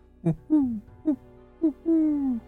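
An owl hoots from the trees in a repeating pattern: short clipped notes alternating with longer, drawn-out falling hoots, four calls in all, clear with no other sounds around.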